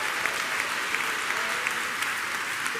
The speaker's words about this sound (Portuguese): Dá uma salva de palmas. Dá glória a Deus em nome de Jesus.